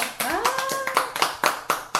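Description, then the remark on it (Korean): A small audience claps in a steady, even rhythm, about eight or nine sharp claps at a brisk pace, with a short rising vocal whoop near the start. “박수 한번 드리죠.”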